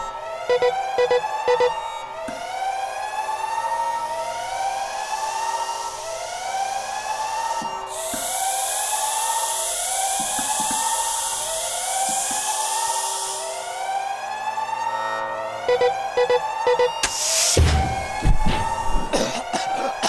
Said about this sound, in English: could you kill the alarms?